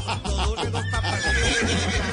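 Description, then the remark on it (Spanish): A horse called Resinante whinnies loudly, a shaky, wavering neigh that stretches across a couple of seconds over a low, pulsing background rumble. “A ver, Resinante, ¿qué me quiere decir Resinante?”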